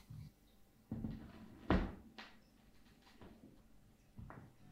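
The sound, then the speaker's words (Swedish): A vinyl record being turned over to play the B-side: a series of soft handling clunks and rustles with one sharper knock in the middle, and no voices. “tar du och vänder på skivan”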